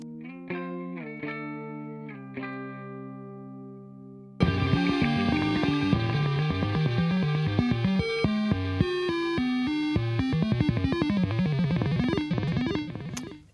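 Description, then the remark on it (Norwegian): Electronic music opens with a few sparse synth notes, then bursts into a dense, distorted track full of rapid stepping modem-like bleeps and bloops that clatter briefly near the end before cutting off. “Litt sånn bleeps and bloops på slutten.”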